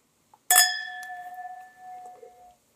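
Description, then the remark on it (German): A single bright clink of glasses touching in a toast, ringing out with a clear tone that slowly fades over about two seconds, fairly loud, with no talking. “Zum Wohl.”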